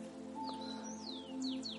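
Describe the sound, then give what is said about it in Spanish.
A small bird sings a quick series of high, thin chirps and sliding whistles, fairly faint, over a steady low background hum, with no one talking. “por tu canto se une el pajarito también a nuestra oración.”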